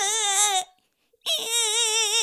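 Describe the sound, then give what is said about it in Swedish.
A person imitates a crying baby with two loud, wavering wails separated by a brief pause, the second wail longer and trembling, with no other sounds. “kan inte det svenska språket, men jag kan låta som en bebis som gråter.”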